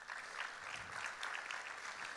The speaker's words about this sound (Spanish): Dale un aplauso al Señor. Yo les voy a, les voy a le da ahí al hermano de alabanza, aleluya. Ahí Dale un aplauso al hermano de alabanza.